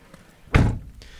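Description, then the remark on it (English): A door is shut for soundproofing with a single solid thud, its low boom fading quickly, followed by a faint click of the latch. No one speaks. “I'll um, I'm just shutting the door for soundproofing.”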